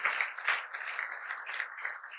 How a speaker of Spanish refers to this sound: ¿Cuántos le pueden dar un fuerte aplauso al Espíritu Santo?